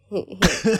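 A short burst of coughing from a person who has been ill: a couple of soft, voiced throaty sounds give way to one loud, harsh cough with a rough, voiced tail, all within under a second.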